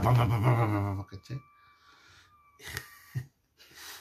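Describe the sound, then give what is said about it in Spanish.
A thermos flask lets out a thin, steady high-pitched squeal for about two seconds, with brief airy puffs around it, following a short burst of voice at the start. “Nuestro termo le gusta hacer ruido. Si lo graban... Le gusta chillar.”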